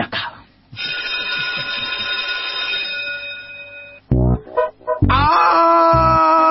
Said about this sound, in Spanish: no me queda más que pedirle a la operadora y jefa de preceptores de este espacio que haga sonar el timbre para comenzar una nueva clase de la escuelita de los sábados